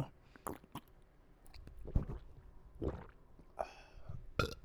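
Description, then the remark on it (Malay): Someone drinking water: a series of soft, irregular gulps and wet mouth sounds, with a few sharper swallowing clicks scattered across a few seconds, and no talking. “sorry, minum air jap.”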